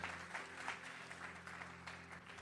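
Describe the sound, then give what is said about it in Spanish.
A sermon audience claps for the Lord in a dense, sustained burst of applause, with a low organ-like hum held underneath throughout. “Alguien que lo crea y le dé un aplauso fuerte al Señor.”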